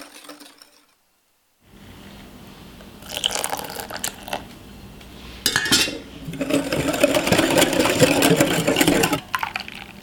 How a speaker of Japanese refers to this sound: 目覚めのいいね今朝は甘いデザートクリームブリュレのいい音それではお聴きください